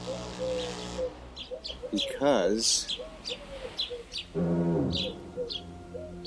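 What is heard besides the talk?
doves cooing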